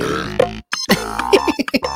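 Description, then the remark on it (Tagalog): Several short, throaty burps in quick succession, loud, with a brief silent gap near the start and a steady tonal hum running underneath. “Para may mga padighay-dighay pa tayo dyan.”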